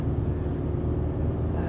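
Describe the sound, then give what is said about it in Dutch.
Steady low rumble of a car cabin on the move, driving on the way to a training session, with constant road and engine drone filling the low end at a moderate, even level throughout. “Die sprak ik gisterochtend in, in de auto, ook weer onderweg naar de training waar ik nu ook naar onderweg ben.”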